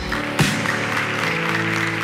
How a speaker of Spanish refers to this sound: Dale fuerte ese aplauso a Él.